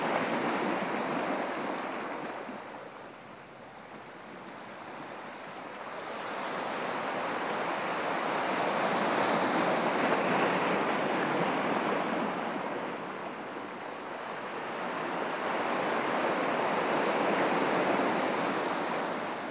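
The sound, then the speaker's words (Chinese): Ocean waves break and wash onto the shore in a steady, broad roar, swelling and easing in slow surges with a hiss of foam and some wind noise; no voices. “你跟这千万年的海浪声一直在一起。”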